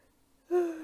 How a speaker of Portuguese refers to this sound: Desculpem o bocejo.